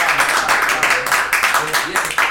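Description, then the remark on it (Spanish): A crowd applauds steadily, a dense, loud wash of many hands clapping at once for a couple of seconds, with faint voices mixed in underneath. “Se aplauden, aplauden todos. Un fuerte aplauso para la cara acá, que son todos.”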